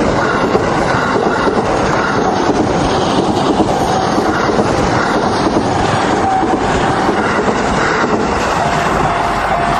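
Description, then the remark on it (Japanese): A train rumbles past a pedestrian-only railroad crossing on the Kamakura Kaido Nakamichi route, a loud, steady roar of wheels on rails with faint clattering that fills the whole stretch without letting up. “電車が来てるここもね鎌倉街道中道で必ず紹介されてる非常に歩道専用の踏切”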